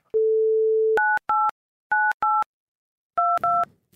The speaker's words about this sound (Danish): Vi ringer simpelthen til Torben Chris.